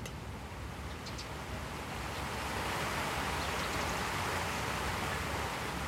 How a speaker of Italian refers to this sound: Siamo in un ecosistema tropicale in mezzo alla città e addirittura c'è una cascata. Se mi avvicino, magari la sento.